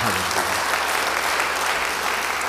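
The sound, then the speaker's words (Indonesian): Steady applause from an audience at a Christian sermon, a dense wash of many hands clapping at a consistent loudness throughout, with a faint trace of a voice at the very start. “Beri tepuk tangan bagi dia.”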